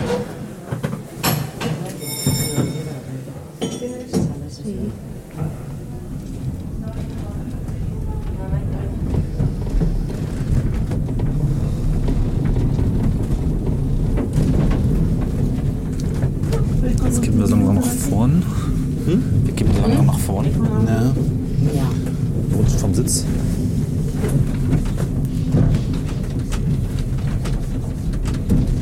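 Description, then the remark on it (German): A quiet wooden vehicle rumbles and rattles along steadily, starting after a few seconds and continuing without pause, with scattered clacks and knocks over a low rolling drone and faint voices at times. “Aber es rumpelt ein wenig. Klappert auch nur wie Holzgefährte klappern können.”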